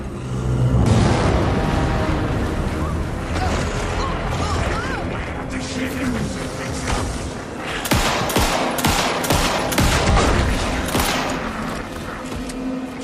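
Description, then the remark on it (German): Sustained video game gunfire in a shootout, rapid loud shots in bursts over a dense rumble of explosions and mechanical noise, with sharp cracks clustering toward the middle and end. “Alan Wake 2 schraubt jetzt die Schussgefechte um einiges zurück.”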